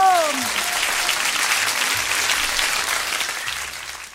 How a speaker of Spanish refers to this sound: Fuerte el aplauso público.